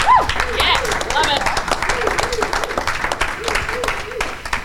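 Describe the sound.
An audience applauds steadily for several seconds to encourage a man, a dense patter of many hands clapping, with voices whooping and cheering over it throughout.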